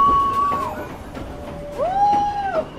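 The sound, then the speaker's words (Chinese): A mountain train rumbles steadily through a series of tunnels in May 2010, as the weather turns from sunshine to heavy rain. A dense low roar runs throughout, while two drawn-out high wails ring out over it, one at the start and a rising one near the end. “但是坐高山火车还真的是人生第一次。”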